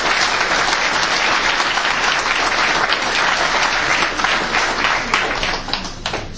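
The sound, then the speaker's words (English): A crowd applauds the politicians present, including TDs, steadily, dense overlapping claps forming a continuous loud wash that holds for several seconds before easing slightly at the end. “We excuse going to applauding these politicians.”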